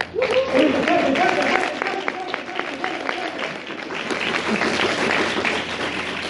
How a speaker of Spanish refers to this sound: Así que muchísimas gracias. Un fuerte aplauso por ustedes.